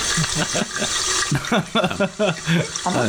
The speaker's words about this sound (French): C'est-à-dire que le mec, il a tellement pas de budget déjà que son son, c'est de la merde, mais en plus, il rajoute un bruit parasite pour qu'on n'entende rien de ce que la, ce la meuf dit. Alors, bah, on va entendre la chasse d'eau